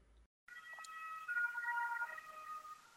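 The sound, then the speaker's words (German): An ambulance siren wails steadily after a brief silent gap, its sustained tones holding for about two and a half seconds at moderate loudness as it goes by. No one speaks. “Krankenwagen.”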